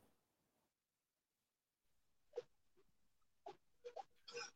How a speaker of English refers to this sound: if you heard a click there and somebody glance up and wonder what was going on I, am sitting in my car and we have seagulls here in aberdeen lots of seagulls and i think something has just hit the top of the roof on the car